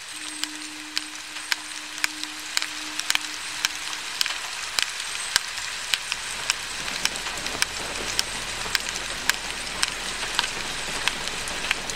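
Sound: rain falling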